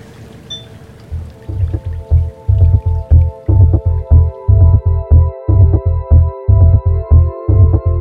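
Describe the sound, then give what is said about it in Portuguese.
Water splashes and drips into a sink while dishes are washed, coming in steady, rhythmic bursts that grow louder after the first second, with no voices. “Vamos ver aqui um podcast para ouvir enquanto eu lavo a louça.”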